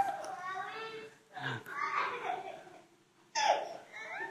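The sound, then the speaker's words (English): A young child in a church audience babbles and squeals in a few high, wavering bursts with short pauses between them, moderately loud, ending in a sudden sharper cry. “That is the sound of a healthy church, by the way.”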